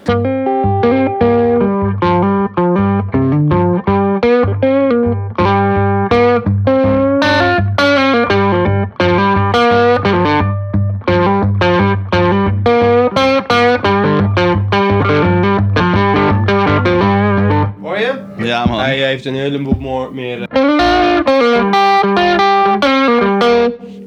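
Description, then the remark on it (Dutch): An electric guitar played through a light Bluesbreaker-style overdrive, with busy melodic runs over a steady low droning note, then a burst of strummed chords near the end, loud and unaccompanied. “Ja, ehm, ja, sommige mensen noemen dit wel bluesbreaker.”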